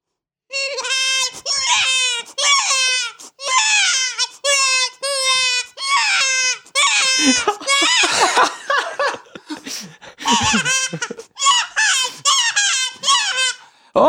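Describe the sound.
A predator call used to lure foxes, mimicking a young hare being caught: repeated high, wavering squeals and cries in rapid bursts, loud, continuing for about fourteen seconds with brief gaps.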